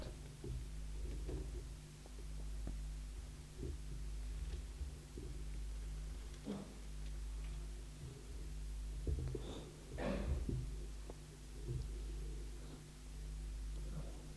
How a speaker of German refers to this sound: Das Rascheln hört auf, anscheinend hat es jeder.